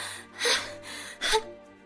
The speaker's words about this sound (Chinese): 一口气说完这两句话，不若幽才剧烈的喘息起来，甚至因吸了冷风而呛咳起来。